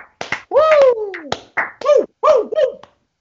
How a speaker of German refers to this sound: Jawohl, ja. Der berühmte Applaus.